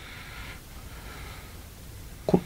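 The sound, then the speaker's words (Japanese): Heavy, airy breathing close to the microphone, two long soft breaths followed by a short, sharper puff of air near the end, with no talking. “このい息は息のような吐息の音は何さっき入ってたけどえっとまあ呼吸は普通にしてますけどねスーハースーハーってずっと聞こえてたような気がしたけど気のせいかなうるさかったですかもしかして”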